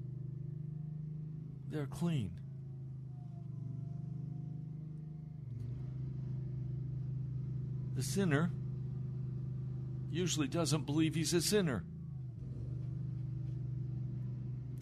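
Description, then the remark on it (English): A steady, low engine rumble from machinery building an asphalt driveway right outside a window drones continuously through the whole stretch, while a man talks in brief bursts over it. “There's construction of a of an asphalt driveway right outside my window and it seems that they have camped right there.”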